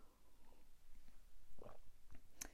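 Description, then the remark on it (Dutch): Someone takes a sip of water: soft wet slurping and a couple of gulps, ending with a sharp click, with no talking. “Even een slokje water weer.”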